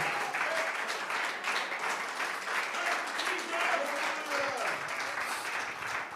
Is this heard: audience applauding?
yes